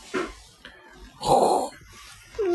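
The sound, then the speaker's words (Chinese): A father imitates how he snores in his sleep: one loud, raspy, rumbling snort in the middle, with a few softer breathy noises before it and a brief voiced sound at the end. “爸爸平时睡觉打呼噜是怎么样的？”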